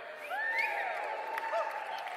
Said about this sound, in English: Let's have a cheer